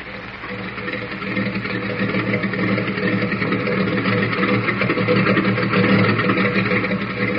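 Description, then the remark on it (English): A steady, droning airplane engine warms up alone at a government airfield, with a low rumbling hum and a buzzy texture that swells slightly after the first second and then holds constant. “Well, there's the ship warming up.”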